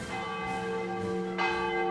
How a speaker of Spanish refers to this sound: Retomando a Porfirio Díaz, él fue quien en 1896 dio el primer grito de independencia en el Zócalo capitalino. Hasta mandó traer la campana de Dolores.